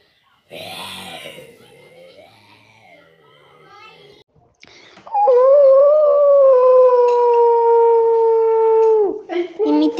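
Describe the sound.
A child's voice imitates a wolf howling, holding one long, loud, steady howl for about four seconds after some quieter breathy vocal sounds, ending with a brief trailing yelp.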